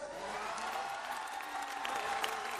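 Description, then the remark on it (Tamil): A church audience claps steadily throughout at a preacher's call, a dense, continuous patter of many hands at moderate loudness. “ஒரு கையை தட்டுறது”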